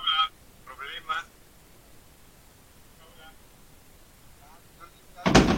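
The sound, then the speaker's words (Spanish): A voice over a call line comes back as a fainter, delayed echo a couple of seconds later, under steady hiss, before a sudden loud burst of static at the end. “Bueno, sí tienes eco.”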